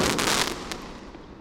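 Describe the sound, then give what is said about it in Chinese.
Fireworks explode in a loud, crackling burst with sharp pops at the start, then a dense hiss and rumble that gradually fades over about a second. No one speaks. “这种烟火声音应该是比枪声还大”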